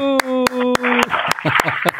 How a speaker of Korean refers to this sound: 박수.